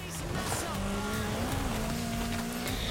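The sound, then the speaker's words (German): An RS200 rally car's engine drones steadily for a few seconds during a small earthquake, its pitch rising slightly, with faint tire squeal mixed into the continuous roar. “Die Aufhängung vom RS-200 steckt das locker weg.”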